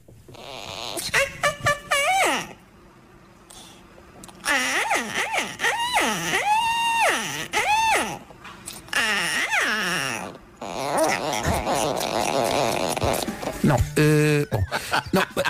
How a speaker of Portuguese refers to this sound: Gemidos de deleite do periquito enquanto é acariciado na cabeça por mão humana